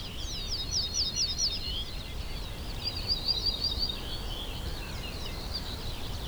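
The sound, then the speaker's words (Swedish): An ortolan bunting sings short phrases of repeated high, ringing notes, a quick series followed by a lower note, over a steady low rumble of background noise. “En av de fåglar som minskar mest i Sverige är ortolansparven.”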